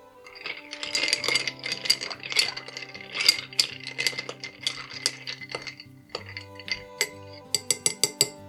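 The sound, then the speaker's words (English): Steady clinking of ice and a spoon against a glass as an old fashioned cocktail with a splash of soda water is stirred, with bright ringing tones and a few sharper, isolated clinks toward the end; no one speaks. “We'll give that a nice little stir.”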